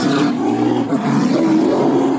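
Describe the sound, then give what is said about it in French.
A polar bear in Antarctica lets out a loud roar that carries on for a couple of seconds as one rough, growling, sustained bellow with no voices around it. “Bon, grâce à cet ours polaire, voilà que je viens de m'assurer un goûter.”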